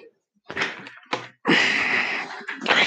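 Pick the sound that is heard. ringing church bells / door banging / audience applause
door banging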